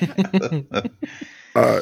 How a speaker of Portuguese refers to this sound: tem que fazer para tirar esses arrotos dele do meio, né?